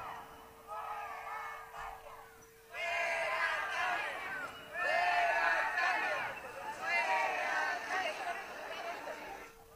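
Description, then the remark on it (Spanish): A crowd of many university students shouting together in protest at their university, a loud, dense mass of raised voices that swells in waves, dipping briefly between bursts before surging again. “Sí, pues siguen los gritos ahí eh, de, de, estos, de estos estudiantes universitarios.”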